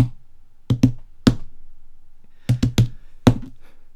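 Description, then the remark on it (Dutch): A Morse code message knocked out on a hard surface: about eight sharp, loud knocks grouped into quick pairs and singles, separated by short pauses, with no voices. “Ja, deze boodschap was eigenlijk in Morse.”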